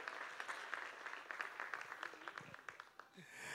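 An audience breaks into steady applause, a dense patter of many hands clapping at moderate volume, with a few sharper claps standing out before it thins toward the end.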